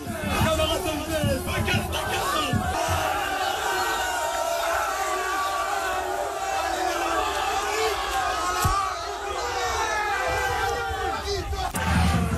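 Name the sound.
football supporters cheering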